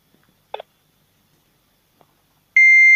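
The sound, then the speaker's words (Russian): An electronic beeper starts up near the end, a loud, steady high-pitched tone that continues to the end. It follows mostly quiet with a brief chirpy click earlier on. “О, пищалку включили.”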